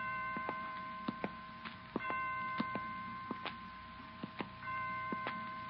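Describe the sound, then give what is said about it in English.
A hospital clock chimes five o'clock with sustained, ringing tones that hang in the air, while a steady tick-tock sounds underneath at an even pace. No one speaks. “Well, five o'clock. I didn't know the hospital had chimes.”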